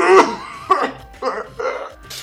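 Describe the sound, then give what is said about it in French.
A voice mimics a neighbour coughing: about five short, raspy, throaty bursts in an uneven sequence with brief gaps, fairly loud. “Ah, tu fais bien la voisine qui, qui tousse.”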